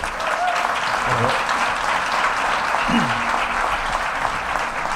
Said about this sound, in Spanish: Un aplauso para él. Bienvenido.